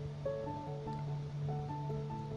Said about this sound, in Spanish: Seguís caminando. Ves el ruido de las olas, ves lo mágico que es este lago,